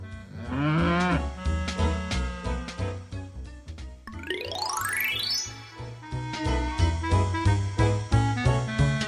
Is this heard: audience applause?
no